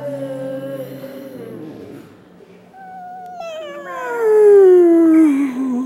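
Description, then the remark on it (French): Voices imitate a cat, making drawn-out meows that bend up and down in pitch, ending with a loud, long meow sliding downward, with no talking. “Et continuez à votre rythme à faire la vache et le chat.”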